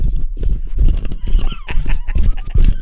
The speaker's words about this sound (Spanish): Estaba en la cocina y se le dejó ir así como estampada, estampida, ¿no?